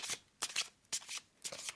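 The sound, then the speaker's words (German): A deck of playing cards being shuffled by hand, cards dropped into the upturned left hand while the right hand repeatedly pulls cards out: four quick, crisp riffling bursts in a steady rhythm, fairly soft, with no voices. “Ja, wenn ich, ich spiele ja auch viele Spiele und da muss man ja auch Karten mischen, also.”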